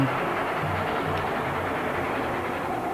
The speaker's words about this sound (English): he lays down in front of the uh, freight train that is coming.